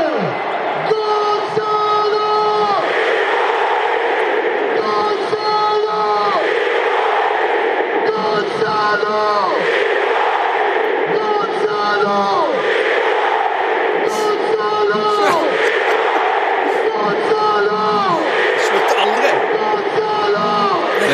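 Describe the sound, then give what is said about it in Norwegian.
At a Napoli home match, a stadium announcer calls out Gonzalo Higuain as scorer of a Champions League goal over a booming PA while a huge crowd roars "Gonzalo!" back in loud, rhythmic call-and-response chants, echoing through a packed stadium. “mine favorittklipp, … på eh, Napoli sine hjemmekamper”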